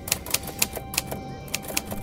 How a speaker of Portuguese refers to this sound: Que som é esse? Ela pensa, enquanto fecha os olhos, deixando mais nítidos os tec-tecs das teclas da velha máquina de escrever no sótão.